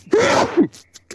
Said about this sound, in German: Ja, Gesundheit.